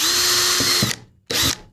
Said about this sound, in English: And, and you're drilling right now about like, I don't know, like two or three inches from the top. Yeah, you just need like a row around the top,